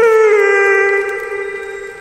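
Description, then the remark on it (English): A single loud, drawn-out whimpering cry like a hurt dog, from a 12-foot-tall carnivorous monster dog man pelted with rocks, holding a steady high pitch before easing off slightly toward the end. No one speaks. “Laugh if you will, but the 12 foot tall carnivorous monster dog man thing whimpered and yelped like a dog you stepped on the tail of.”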